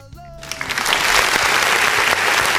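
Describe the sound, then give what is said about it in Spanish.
Clapping from a crowd swells quickly into a steady, dense wash of applause that stays loud through the end, after a brief tonal moment at the start; applause on the program Más o menos regular. “Qué bonito escuchan esos aplausos.”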